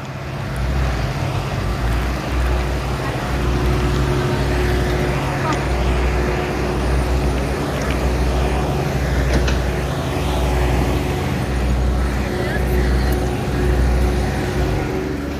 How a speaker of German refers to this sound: Ah, hier wird die Straße neu gemacht.